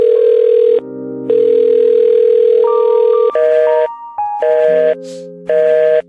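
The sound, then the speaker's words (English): A loud, steady telephone dial tone of a phone hotline for leaving messages sounds in long bursts, broken by short gaps and a run of stepped electronic beeps at different pitches, with no one speaking. “the Corey Hotline is a phone number you can call anytime, day or night, 24 hours a day”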